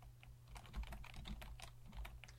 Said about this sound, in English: So, but I hear you typing and looking it up. I am going to look it up.